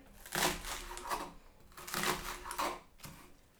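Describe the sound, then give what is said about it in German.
A knife chops vegetables on a board, with a series of crunchy, rustling cuts coming in uneven bursts, no voices. “Hört man mich doll hacken?”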